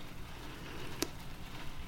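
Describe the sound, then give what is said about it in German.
Soft, steady rain from a few small clouds over the open sea falls while the sun shines. It makes a continuous hiss with a faint patter, plus a single brief tick partway through. No voices. “Und die verursachen diesen Regen?”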